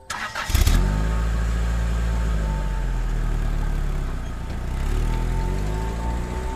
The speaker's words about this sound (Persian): سوار ماشین شدیم و گازش رو گرفتیم با نهایت سرعت از اون بخش پارک فاصله گرفتیم